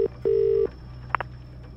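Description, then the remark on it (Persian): A telephone line signal as a number is dialed to call the head coach of the Wild Boars team: a short tone, then a longer steady beep at a single pitch, followed by two quick faint clicks. No voices. “تلفن رو بر میداره و زنگ میزنه به سرمربی ناک سرمربی تیم گراز وحشی”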